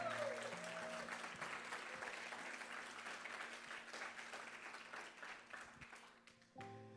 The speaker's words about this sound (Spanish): pero denle su mejor aplauso al Señor.